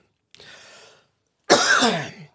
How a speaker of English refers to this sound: I was out sick, not feeling well. I'm not hundred uh, percent, so excuse me for any coughing